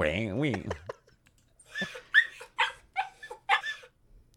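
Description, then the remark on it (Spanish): An excited dog seeking attention while its owner looks at a phone whines in a high, wavering tone, then lets out a quick run of short, sharp yips and barks in uneven bursts, moderately loud. “bueno, esto es un perro, perro.”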